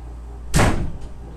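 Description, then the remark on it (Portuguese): A door shuts with a single solid, loud thud, followed by a brief rattle as it settles, with a faint click trailing afterward. No one speaks. “Fecha é a porta.”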